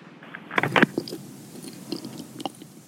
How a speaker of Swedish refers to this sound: Jag ska bara tugga eh, två sekunder till på min tuggummi. För det är så mm. gott.